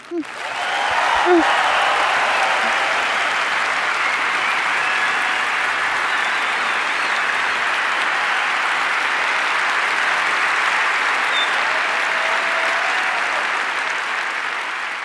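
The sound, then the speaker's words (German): Sustained audience applause from a crowd of about 5000 people after a statistics lecture, a dense, steady wash of clapping that starts abruptly and holds at an even level for about fifteen seconds, with no one speaking over it. “Ich höre das, das das erste Mal so als, als Soundbeispiel, weil ich es ja live ge, ge, ge ich, ich habe damit applaudiert sozusagen. Ich saß damit drinne in dem Vortrag.”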